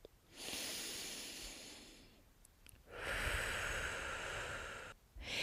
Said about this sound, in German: Ich habe es mir auf meinem Meditationskissen gemütlich gemacht. Die Beine sind im Schneidersitz, die Knie berühren den Boden und mein Rücken ist gerade. Dann schließe ich meine Augen und konzentriere mich nur noch auf meine Atmung.